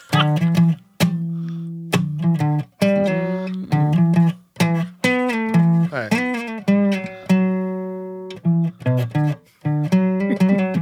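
A guitar is tuned down: the same strings are plucked again and again, ringing out in short bursts, while one note slides lower in pitch as a tuning peg turns.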